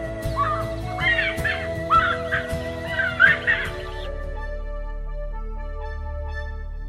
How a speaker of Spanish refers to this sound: Y así fue desde entonces por valles y collados, se escucha particularmente en la hora vesperal el canto monótono y alborotado. Yipaca.